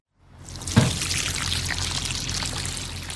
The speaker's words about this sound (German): steht im Leipziger Gartenbaubetrieb und gießt im Gewächshaus eine Reihe junger Tomatenpflanzen. In dem Gartenbaubetrieb der gemeinnützigen GmbH Annalinde ist viel zu tun.